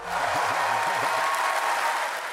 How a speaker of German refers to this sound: Das Publikum hat nicht nur applaudiert, sondern gejubelt und Schilder geschwenkt mit Slogans wie Besser als nix oder Für Europa reicht's.